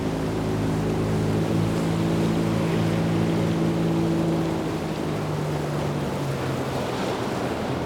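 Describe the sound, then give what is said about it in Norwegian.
A small motorboat's engine drones steadily as the hull pushes through choppy waves, with constant splashing water and gusty wind noise across the microphone. “Merker man eh, bølgene når man er i en sånn båt?”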